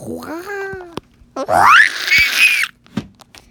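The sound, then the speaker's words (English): A person imitates a monster's shriek: a short warbling vocal wail, then a loud, piercing screech that climbs sharply in pitch and holds for about a second before cutting off. “and it makes the loudest shriek once again.”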